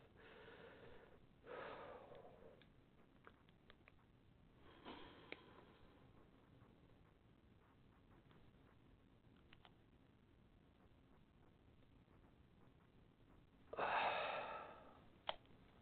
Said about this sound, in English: And you take a nice, slow, deep breath in, like you're sighing or yawning or something like that. And then you do a breath hold at the end. So the whole maneuver looks a bit like this.